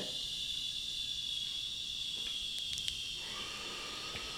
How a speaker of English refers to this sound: so loud, loudest coffee machine of all time.